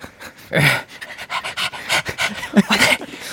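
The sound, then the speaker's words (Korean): A person imitates a puppy that cannot eat the chicken in front of it, panting with quick, rhythmic, breathy huffs. The huffs repeat steadily for a few seconds with slight whimpery accents. “네, …께서 치킨을 앞에 두고 못 먹는 강아지처럼”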